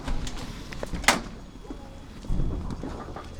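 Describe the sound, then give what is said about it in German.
A heavy door at the youth prison in Adelsheim, Baden-Württemberg, opens into a security lock with a sharp metallic clunk partway through, followed by a low rumbling scrape as it moves, set against a dull, echoing background tone. “Dann öffnet sich eine schwere Tür und wir kommen in eine Schleuse.”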